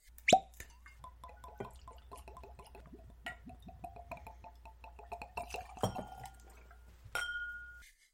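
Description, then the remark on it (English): Bourbon whiskey glugs and trickles as it's poured into glasses, with a sharp glass clink at the start and another near the end, fairly quiet, no voices. “Alrighty, so whiskeys are poured. I should say bourbons are poured”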